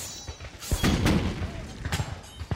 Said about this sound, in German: Fast zeitgleich feuerten die Piraten und die Soldaten ihre Kanonen ab.